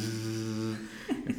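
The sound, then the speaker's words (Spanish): A voice imitates a noisy hot water pipe running through the middle of a bedroom in an Airbnb in New York, with a steady, low droning hum held for nearly a second, followed by a couple of short gurgling vocal bursts. “Entro a mi habitación y hay un tubo de agua caliente pasando por en medio de la habitación y suena así.”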